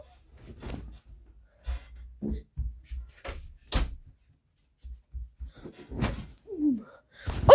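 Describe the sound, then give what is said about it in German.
A door is handled and shut: a series of soft thumps, clicks and rattles over several seconds, with a sharper knock midway and a firm closing thud at the end. “Ich mach kurz die Tür zu.”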